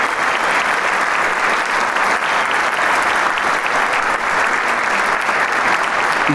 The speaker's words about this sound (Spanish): sendos eh, ramos de flores a este joven y virtuoso maestro que lo recibe con todo el cariño y un rostro serio, pero ahora sonriente y agradecido ante el aplauso apabullante del público de Camerata que se le entrega totalmente